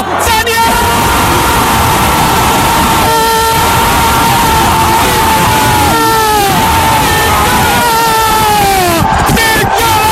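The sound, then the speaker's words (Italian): A huge crowd of over 60,000 at the Olimpico stadium roars and cheers for Roma's Nicolo Zagnolo without letup, loud and dense, with yells and sustained chanting tones rising and bending above the wall of noise. “Poi la scena se la prende Nicolo Zagnolo che fa perdere la voce agli oltre 60.000 dell'Olimpico e non solo.”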